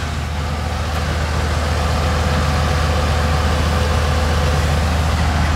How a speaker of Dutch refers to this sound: Als je nu bijvoorbeeld heel even stopt en we luisteren naar die, de ritme van die motor.